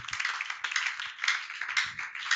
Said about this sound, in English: Somebody clap your hands for the Lord.